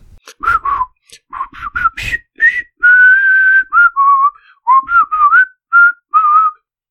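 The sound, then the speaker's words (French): A person whistles a film theme tune, starting with quick, choppy notes and moving into longer held and sliding tones, clear and fairly loud with no talking. “Est-ce que je le dis ou est-ce que je le siffle le titre du film Ah bah vas-y, siffle-le.”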